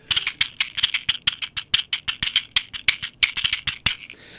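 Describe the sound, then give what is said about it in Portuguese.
A matchbox tapped in a quick, steady samba rhythm, in the style of a samba performer: crisp, dry clicks and shuffles repeating for several seconds, with no voices. “tem o som é, da caixa de, de fósforo, né?”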